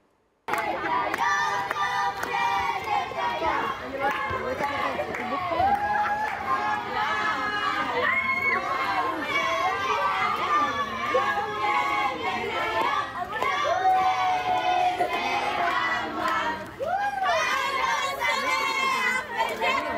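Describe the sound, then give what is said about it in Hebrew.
A crowd of children at Moriah school shouting and cheering together at a birthday celebration they held for their school's security guard, loud, with overlapping high voices and excited calls filling the whole stretch without a break. “תראו איזה יום הולדת יפה, הילדים בבית ספר מוריה ערכו לשומר של בית הספר שלהם, שמו אליו לב, נתנו לו תשומת לב, והדמעות שלו אומרות הכול.”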